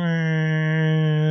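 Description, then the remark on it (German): A steady, loud hooting drone from the vibrating water pipes of a broken kitchen sink sprayer while the tap is left running, a sustained tonal honk with rich overtones holding for over a second, no voices present. “Ähm, die Brause bei uns in der Spüle ist kaputt.”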